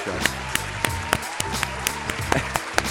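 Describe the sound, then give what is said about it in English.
Steady applause for a guest DJ on Pulse 95 Radio's Catch a Vibe show, with sharper claps popping out every fraction of a second over a low, sustained musical hum underneath. “Uh, we got to make some noise for DJ”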